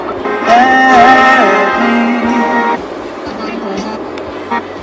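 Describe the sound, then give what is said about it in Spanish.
A sustained, tonal car horn blares for nearly three seconds over steady traffic rumble, heard from inside a vehicle, then fades back to a dull road hum with scattered faint noises. “Y bánquense el sonido, porque esto es un móvil desde el vehículo.”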